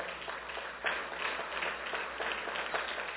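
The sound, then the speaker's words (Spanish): A crowd applauds steadily for a few seconds, a dense, crackling wash of many hands clapping at once with no one speaking over it, evenly loud throughout; the applause is given to God. “Denle un fuerte aplauso a Dios.”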